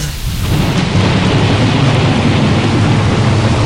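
Loud, steady rain pours down as a deep rumble of thunder rolls underneath, filling the whole stretch without a break. The storm is continuous, with no voices.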